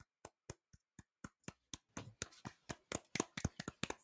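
A small round of applause: a few sharp, even claps at first, quickly joined by more hands into a denser, overlapping patter that grows a little louder before the end.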